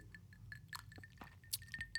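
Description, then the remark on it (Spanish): Someone sips sangria from a glass, with a series of light, high glassy clinks and faint liquid sounds over a low background hum. No one speaks. “Voy a tomar un sorbito de mi sangría, si es que están ustedes igual relajados, salud.”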